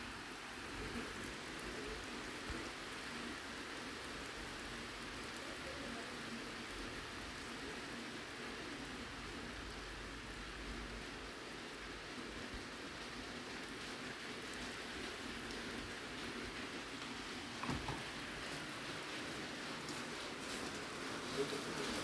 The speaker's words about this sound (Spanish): Siempre les he puesto el sonido del mar y ahora les pongo el sonido de la lluvia, un poquito, un ratito.